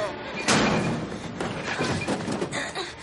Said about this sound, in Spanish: La joven derriba el frigorífico bloqueando la puerta de la bodega y corre hacia la entrada.